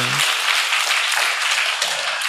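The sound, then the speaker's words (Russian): An audience applauds the Lord during worship, a dense, steady wash of many hands clapping that fills the whole moment, with a brief bit of voice at the very start. “Давайте поаплодируем Господу сегодня в этот день.”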